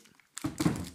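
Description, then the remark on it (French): A bottle is set down hard with a dull thunk, followed by a short resonant knock and a brief rattle, all at moderate loudness with no talking. “désolée pour le bruit de la bouteille je suis vraiment brutale des fois”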